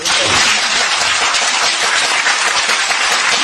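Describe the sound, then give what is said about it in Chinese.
An audience bursts into steady, loud applause, a dense wash of many hands clapping that holds at an even level for several seconds without any talking. “好，给我们帅哥一个掌声，好不好？”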